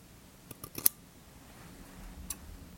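Small scissors trimming eyebrows make a few quick, crisp snips in a short cluster, followed by a single faint snip after a pause, over a quiet background with no talking.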